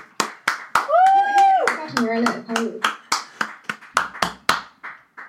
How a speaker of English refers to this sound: Oh, we're clapping, yeah. we're clapping. By the way, NHS oh, clapping. We're still clapping for the NHS. Oh, every week? Apparently it's every week now, so make sure you're clapping.